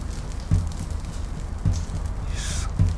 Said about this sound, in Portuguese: também estão aqui para lhe ajudar começam a tocar o tambor. Escute o tambor.